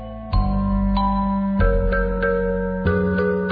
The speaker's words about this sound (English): You know, this guy made this record in like a day with one cat and a keyboard